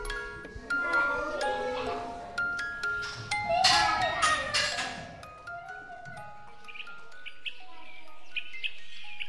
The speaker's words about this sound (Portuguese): A creche fica ali ao virar da esquina, sem vista para o arame farpado, com vista para um mundo de escorregas e baloiços, onde voltamos perto da hora de almoço quando se ouvir esta caixa de música.